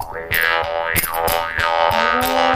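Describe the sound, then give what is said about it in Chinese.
A mouth harp twangs with repeated plucks, the player's mouth acting as its resonating sound box, its bright buzzing tone swooping up and down in a wah-like boing as the size of the mouth cavity changes, over a steady low drone. “但是我们放在嘴巴里面，嘴巴里面等于就是一个，等于就是一个音箱共鸣，对，好，音箱共鸣，从嘴巴你看，现在是这样空灵的声音，但是放在嘴巴里面就是音箱。”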